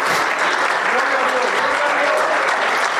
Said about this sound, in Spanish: Débele un aplauso al Rey de Reyes y Señor de Señores. Aleluya.